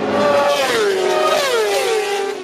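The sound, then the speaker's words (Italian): A motorcycle engine revs loudly, its pitch rising and falling in a couple of throttle surges before easing off at the end, with no talking. “no Yamaka, no Yamaka la moto.”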